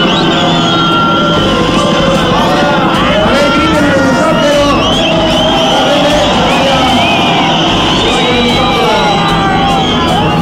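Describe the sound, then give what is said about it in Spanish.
A large crowd cheers and applauds loudly and continuously for a helicopter flying over, with whoops, shouts and a dense babble of voices filling the space, the clapping and yelling surging in waves throughout. “Un aplauso al helicóptero que viene a ver qué tanto está pasando acá abajo.”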